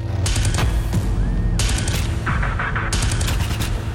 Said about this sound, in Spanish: Escucha. Gritos ahogados por la metralla del verdugo.